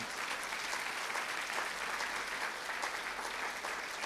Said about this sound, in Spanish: Apláudele fuerte hacia el Señor.